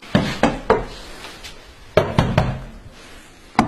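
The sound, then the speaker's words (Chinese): A reporter knocks on an apartment door in a corridor of the Xuesong Xincheng residential complex, Sujiatun District, Shenyang, China, the registered address of the decoration firm Yimi Jingzhuang. The knocks come in two sets of three, then a single knock, each loud and crisp with a short echoing tail. No one answers. “听听哈，走廊里回荡着我们记者的敲门声，屋内呢却没有任何的回应，仿佛啊这里压根儿就不存在什么装修公司。”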